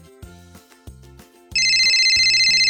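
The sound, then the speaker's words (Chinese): A short, repeating low musical phrase gives way to a loud, continuous electronic phone ringtone, an incoming call for Police Chief Poli. It is a bright, high, slightly warbling tone that holds steady to the end, with no voices. “波利警长收到了来电。”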